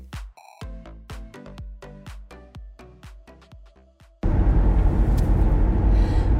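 A short run of bright, plucked musical notes gives way to a loud, steady rumble of road noise from inside a moving car, with no one talking.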